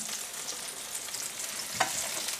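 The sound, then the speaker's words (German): Meat-substitute pieces sizzle steadily in a sauce-filled pan, a dense crackling hiss with a brief louder pop partway through; no one speaks. “Und lassen es da noch ein bisschen mitschnurgeln.”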